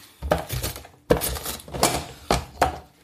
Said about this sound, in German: So, jedenfalls, ich raspel das jetzt hier gemütlich. Ich glaube, da wollt ihr gar nicht zuhören und das ist doch viel zu laut